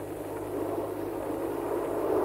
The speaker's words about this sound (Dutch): Het is Moment, nieuwe vliegtuigen die langskomen.